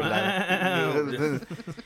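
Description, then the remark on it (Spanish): A human voice imitates a warbling, bleat-like bark, a sustained wavering cry lasting over a second, then breaking into a few short choppy yelps, close and fairly loud. “Tiene como un distorsionador de voz, vamos.”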